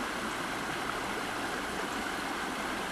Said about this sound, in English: Listen to this water, y'all.